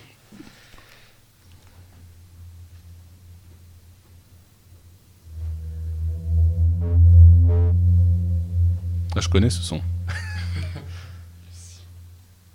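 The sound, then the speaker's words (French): A deep, steady booming drone of singing sand dunes, wind blowing over desert sand, from the 2005 Arte Radio sound piece Chant des Dunes, swells up partway through and hums on loudly, with people briefly talking before it starts and again over it. “Et c'est le bruit du vent dans le, dans le sable.”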